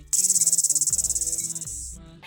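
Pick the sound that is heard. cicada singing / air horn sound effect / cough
cicada singing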